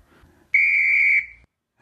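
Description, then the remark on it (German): A referee's whistle is blown for kickoff: a single loud, sustained blast about a second long with a steady shrill pitch, heard on its own with faint background noise before it. “Aber vielleicht pfeifst du einfach an, wir sind ja schon mitten im Thema.”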